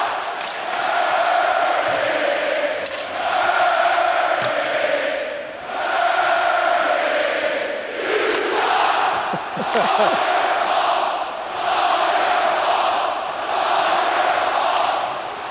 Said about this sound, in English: hearing a synchronized chirp with like 18,000 people all